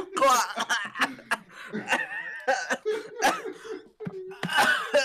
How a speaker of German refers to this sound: Ich habe einen Husten, Allergie also, und so, ja.